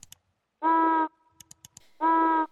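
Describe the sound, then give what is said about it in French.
Two flat, buzzy honking calls of an African penguin at the surface, each steady in pitch and about half a second long, separated by a few soft clicks and rustles. “Alors, ce, premier cri, c'est un cri qu'on va appeler euh, flat call, donc un cri plat, tout simplement, parce que d'un point de vue euh, euh, fréquence acoustique, il il est plat.”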